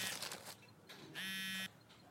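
A single short electronic telephone ring, a steady buzzing trill that sounds for about half a second and then stops, loud against a quiet, faintly noisy background with no talking.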